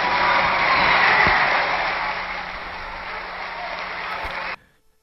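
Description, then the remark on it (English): A large Black crowd cheers and applauds Martin Luther King in a dense, continuous roar of clapping and voices, loud and steady for over four seconds before cutting off abruptly. “That was a black crowd agreeing with Martin Luther King he wasn't advocating violence.”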